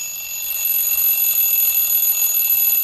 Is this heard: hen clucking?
no